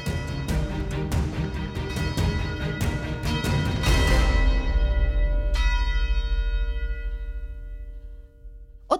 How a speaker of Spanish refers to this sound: Y las campanas de la catedral anunciaron la victoria.